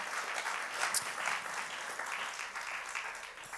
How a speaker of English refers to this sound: let's clap our hands unto the Lord for him. Good to see you, brother.